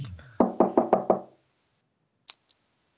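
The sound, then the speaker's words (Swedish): Five firm knocks on an office door in a quick, even rhythm, fairly loud, followed after a short pause by two faint, sharp clicks. “Han knackar på dörren till Lampinens kontor. Knack, knack!”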